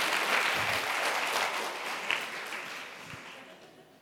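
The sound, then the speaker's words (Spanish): Audience applause for a chef invited up from the audience, a dense wash of many hands clapping at steady loudness that gradually thins and fades toward the end, with no voices over it. “Ok, véngase conmigo, por favor, dele un aplauso.”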